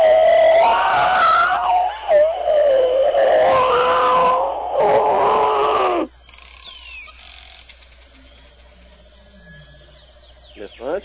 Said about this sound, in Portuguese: Posso soltar a trilha? Pode soltar o elefante.